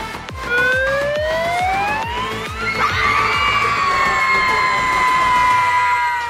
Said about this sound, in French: c'est un moment un peu particulier où on lance une grosse sirène et où tous les jeunes vont crier, crier, crier tout ce qu'ils ont, euh, qui vont sortir un peu de toutes leurs émotions qui sortent de leur trip quoi.